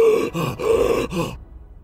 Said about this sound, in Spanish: Te falta el aliento. Oye bien, te falta el aliento, jadeas.